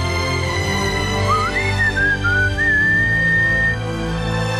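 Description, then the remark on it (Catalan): A person whistles a short, slow film theme melody with gliding, rising and falling notes for a few seconds, clear, over a steady low droning background. “Xiulin en algun moment la melodia de Braveheart”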